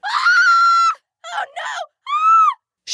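A high-pitched girl's scream of horror, performed by a voice, as she comes home from school and finds the tree in her yard dug up: one long sustained shriek, a choppy broken cry, then a shorter wailing scream, loud with no speech.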